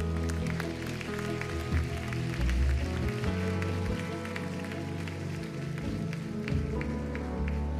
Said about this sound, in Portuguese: Se você fez essa oração, aplauda o Senhor no seu lugar.